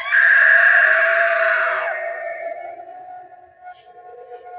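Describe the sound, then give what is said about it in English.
A Halloween decoration, a figure that pulls out a knife just before it screams, lets out a loud, shrill electronic scream that starts abruptly, holds for about two seconds, then trails off into quieter, lower fading tones. No one talks over it. “I don't know if you heard right before she screamed, they pull a knife out and she goes, it's a good one, huh?”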